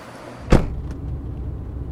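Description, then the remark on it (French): A single solid car door thump over the steady low rumble of a stopped blue Hype hydrogen taxi idling; a faint softer click follows shortly after, with no talking. “Tiens, regarde, il y en a un qui s'arrête.”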